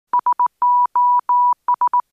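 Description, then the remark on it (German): A steady mid-pitched beep tone keyed in Morse code: three short pips, three long dashes, three short pips, the SOS distress signal, clear and alone with no voices. “SOS oder eben”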